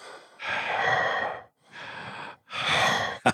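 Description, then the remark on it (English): A person imitates the heavy, raspy breathing of an ice cream man hidden in his truck, likened to Michael Myers under the mask: three long drawn breaths in and out, fairly loud, with a muffled, masked quality and brief pauses between them. “But you'd hear that breathy Michael Myers under the mask breathing.”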